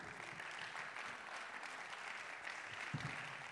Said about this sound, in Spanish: Dale un fuerte aplauso al Señor. Fuerte el aplauso. Fuerte ese aplauso, hermano. Vamos.